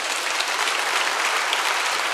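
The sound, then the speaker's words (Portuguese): An audience at Igreja Batista Bethesda bursts into steady, dense applause for the Lord, a continuous wash of many hands clapping at an even loudness for a couple of seconds with no voices standing out. “Quem pode aplaudir o Senhor por isso, pela fidelidade?”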